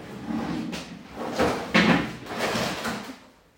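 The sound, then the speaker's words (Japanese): Someone noisily cleaning up rubbish: a run of irregular clattering and rustling bursts, several sharp knocks like drawers or lids being handled, moderately loud with no talking. “すごいゴミゴミを掃除し始めとってねうるさかったんだけど”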